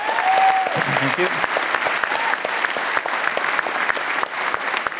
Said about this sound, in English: So just a round of applause for that, please.